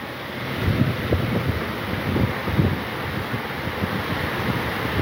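strong storm wind

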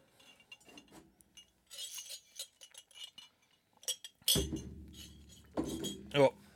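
glasses clinking

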